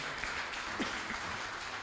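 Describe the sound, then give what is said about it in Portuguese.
An audience applauding Jesus during a morning church service, a steady wash of many hands clapping at once, fairly soft, with no voices standing out. “E assim que você se colocar de pé, vamos aplaudir bem forte ao Senhor Jesus nesta, nessa manhã.”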